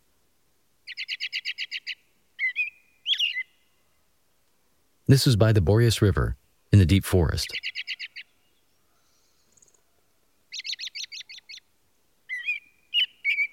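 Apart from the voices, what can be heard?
robin singing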